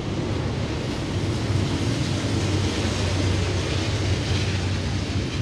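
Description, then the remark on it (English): A train rumbles past in Northeast Minneapolis, a steady, loud roar of low rumbling and broad hiss that holds at an even level throughout, with no voices. “I love that there's a train here that goes through here.”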